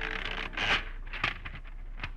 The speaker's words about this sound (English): At 11 the next morning, you finish typing a note.